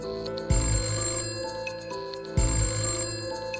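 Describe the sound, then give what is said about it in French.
A telephone rings twice in a steady, evenly spaced pattern, each ring a loud metallic bell trill with a bright, buzzing tone, clear with no voices, at the home of a boy's paternal uncle at 5:30 pm. “le téléphone a sonné chez l'oncle paternel de Grégory”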